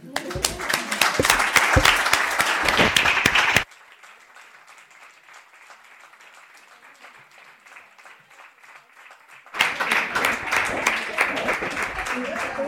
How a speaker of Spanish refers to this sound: Y miren el detallito que hizo el compañero. O sea, ¿saben qué? Lo vamos a aplaudir otra vez.